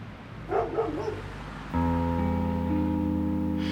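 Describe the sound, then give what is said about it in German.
A dog gives a short burst of barks and yelps at a front door, then a loud, steady mechanical drone with a low hum suddenly takes over and continues to the end. “Vor der Tür treffe ich nur seinen Hund an.”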